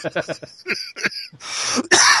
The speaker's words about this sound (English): God damn, you made my cough come back.